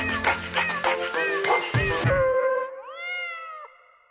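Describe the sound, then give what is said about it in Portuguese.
A single drawn-out cat meow, clear, rises and then trails off near the end, following a couple of seconds of busier, cluttered sound. “super obedientes aos seus três gatinhos, Mil, Mu e Morcega.”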